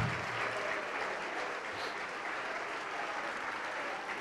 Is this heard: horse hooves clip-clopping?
no